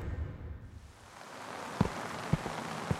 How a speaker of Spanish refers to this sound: Stephen camina por las calles perdido y empapado. La llovizna londinense le cala los huesos.